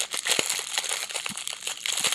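Continuous crinkling and rustling of wrapping paper being pulled and torn open from a package, with irregular crackly bursts throughout and no voices.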